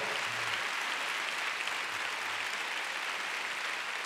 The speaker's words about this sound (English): Oh, come on, give the Lord a big clap. Hallelujah.